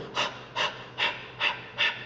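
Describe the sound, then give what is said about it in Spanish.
A person imitates an animal snorting and panting: five quick, breathy huffs in a steady rhythm, fairly loud, with no talking. “Y aquí habla esa palabra eh, pasión, hace referencia, y esto va a ser muy gráfico para eh, nosotros que en algún momento hemos estado, a lo mejor no crecimos en el campo, pero hemos estado al lado de un animal que está bufando, que está...”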